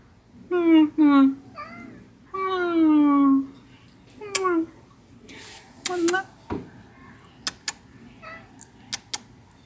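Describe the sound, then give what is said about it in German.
A male house cat meows several times, long wavering calls and shorter chirps, followed by a few soft clicks and light rustling. “Du tust ja heute nur Brücken und nicht Miau sagen.”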